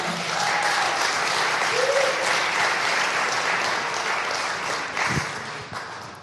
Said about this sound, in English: Round of applause